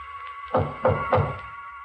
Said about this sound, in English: He's come. He knocks on my door.